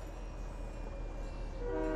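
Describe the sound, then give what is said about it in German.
A train with enemies on it rumbles steadily in a video game, a low continuous roar with a horn-like tone rising near the end; no one speaks. “Na, er ist genau vor mir, Digga, der Zug.”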